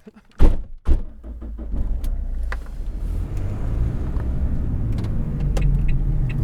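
Two heavy car door thunks in quick succession, loud, followed by a steady low rumble of a car engine idling and running for several seconds.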